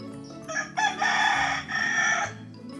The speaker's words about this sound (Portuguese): O galo cantou. Ele veio avisar está na hora da leitura.